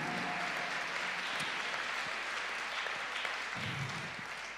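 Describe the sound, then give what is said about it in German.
Sustained audience applause for shepherds, a dense, even wash of many hands clapping steadily for several seconds before beginning to taper off, with no voices standing out. “Komm, lass uns doch mal einen Applaus für Hirten geben, weil Hirten wunderbar sind.”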